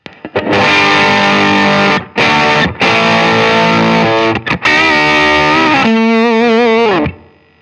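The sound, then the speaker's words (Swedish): A fuzz-distorted electric guitar, played through a fuzz pedal on its Well-Rounded Fuzz preset, plays loud, thick sustained chords with brief gaps between them, ending in a wobbling, vibrato-bent note that fades out. “Då börjar vi med den första som heter Well-Rounded Fuzz.”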